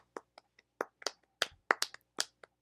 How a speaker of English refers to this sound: But good for him, right? Round of applause.